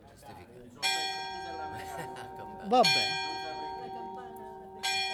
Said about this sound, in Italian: Però vi... la campana ci sta, ci sta interrompendo.